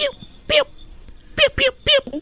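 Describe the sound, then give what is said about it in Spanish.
A child's voice mimics a puppy with four short, yappy barks: one, a pause, then three in quick succession, fairly loud. “A ver, ¿puedes hacerle como un perrito,”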